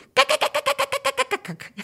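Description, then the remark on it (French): A man mimics a cockatoo with a quick run of about a dozen harsh, raspy squawks, loud, rattling out in a steady rhythm before tapering into lower, rougher calls. “Mais il, faisait le cacatoès.”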